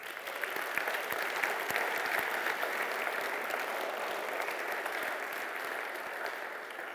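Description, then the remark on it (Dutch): A crowd applauds the children's workers steadily for about seven seconds, a dense, even wash of many hands clapping at a constant loud level with no voices standing out. “Zullen we het kinderwerkers even een applaus geven?”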